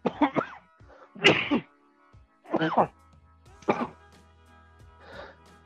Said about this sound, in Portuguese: perdão aí, deu um crise de tosse.